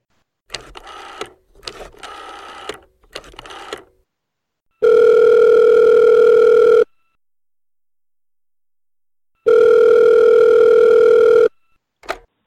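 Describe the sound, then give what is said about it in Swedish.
A few quick electronic beeps like a number being dialed, then two long, steady telephone ringing tones separated by a silent gap, loud and clear with no voices. A phone call is being placed to someone in a band. “Jag tar min snabel och, och snurrar på det stora hjulet och ser vem i … jag ringer.”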